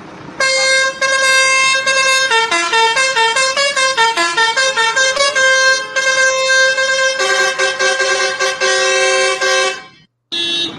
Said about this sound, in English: I know this one says truck horn. This seems like a good one.